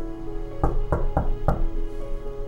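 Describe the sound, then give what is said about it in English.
Four firm knocks on a door in a fairly steady rhythm, the third slightly quicker, sounding solid over a faint, steady background hum. “He goes knocking doors, knocks doors that seem that will never open.”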